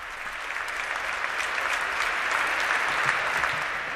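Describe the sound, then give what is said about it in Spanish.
Strong, sustained applause from an audience at the end of a ceremony in the Archdiocese of Barcelona, greeting the brief words of Monsignor David Abadía Saurín, auxiliary bishop; a dense steady roar of many hands clapping at an even loudness throughout, with no voices standing out. “Palabras breves, como ha prometido de Monseñor David Abadía Saurín ya obispo auxiliar de esta archidiócesis de Barcelona, al finalizar la ceremonia y recibidas por un fuerte aplauso.”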